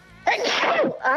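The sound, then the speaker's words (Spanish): A single loud sneeze bursts out suddenly with a sharp, breathy explosion, followed by a brief trailing exhale; no talking accompanies it. “¡Jesús!”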